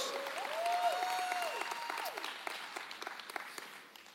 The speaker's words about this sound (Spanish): Saludos a nuestros campus Northeast, West, San Juárez, Chihuahua. ¡Ey! Vamos dándoles un fuerte aplauso a todos nuestros campus.